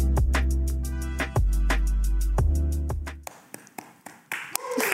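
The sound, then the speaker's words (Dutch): A musical passage with deep sustained notes plays, then cuts off and a single person, a presenter, claps for themselves a few times on camera, the sharp claps slightly uneven in rhythm. “Ja, ik klap even voor mezelf.”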